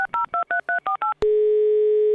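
Seven quick, evenly spaced touch-tone beeps of a telephone number being dialed to sign up for a brewing course, followed at once by a steady, unbroken phone line tone; loud, with no voices.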